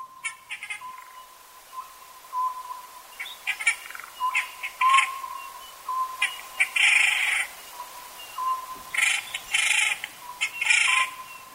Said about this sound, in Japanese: 夜行性の獣の中ではムササビの鳴き声をよく聞きます暗闇の森の中木の葉が茂った中で活動するだけに仲間同士の合図は鳴き声が頼りなのです